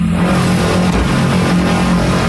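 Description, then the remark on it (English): A tractor-trailer carrying seven gunmen arrives at an airstrip at Jonestown, its engine rumbling loud and revving with a steady low drone and gritty roar throughout, with no voices. “As I was loading defectors on the two planes, a tractor trailer with seven gunmen arrived at the airstrip.”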